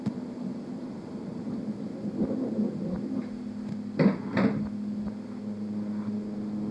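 A door opens and shuts, two quick sharp clunks about half a second apart over a steady low mechanical hum, with no voices.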